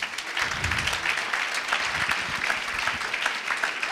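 An audience applauds steadily to welcome a guest, an Indian philosopher and author, a dense, even wash of many hands clapping that holds at a fairly loud level for the full few seconds without clear individual claps standing out.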